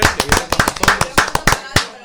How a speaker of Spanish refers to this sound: Bueno, vamos a darle un fuerte aplauso a